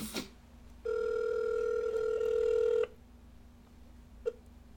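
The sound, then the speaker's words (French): A single long electronic ring tone of about two seconds, steady and fairly loud, from a phone call put on speakerphone, followed by a short click and a quiet background hum. “Appelle-moi live là. Je te dis, il y a une pause. Si tu raccroches, je vais tomber sur ta boîte message, right?”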